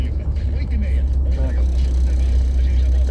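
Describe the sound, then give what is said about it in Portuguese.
A truck passes by on the BR highway on a hot morning, its deep, steady engine rumble and road noise filling the scene without a break for the whole few seconds. “caminhão passando aqui.”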